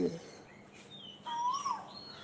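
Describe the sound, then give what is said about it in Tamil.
A faint Asian koel calls with a rising whistled note, surrounded by soft higher chirps and quiet background noise; a brief low murmur sounds at the very start. “பாருங்கள் குயில் எவ்வளவு அழகாக கூவுகிறது டாவோ என்கிறதாம்”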